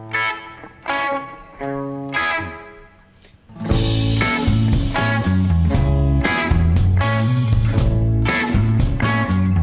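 A rock song by a band from Zona Sur plays from a recording, opening with a few effects-laden guitar chords before the full band crashes in loudly with distorted guitars and steady drums. No one speaks.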